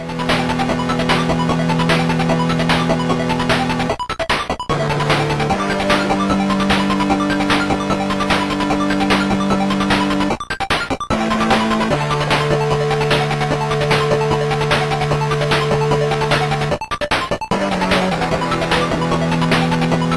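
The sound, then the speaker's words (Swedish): Retro DOS PC video game music plays on its own: buzzy synthesized tones with some pitch bends hold steady chords that shift every few seconds, with a couple of brief gaps between phrases, loud and upfront. “Men det vi hör här är väl förmodligen 100% digital musik då.”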